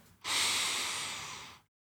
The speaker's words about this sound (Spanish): ¿Cómo poder respirar? Poder hacer una respiración eh, bien prolongada,